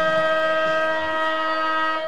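A loud, steady siren blares continuously at a football ground, Maughan Thiem Kia Oval on Oval Avenue, sounding to start the last quarter, holding one unwavering harmonic tone without rising or falling, with faint crowd ambience beneath it.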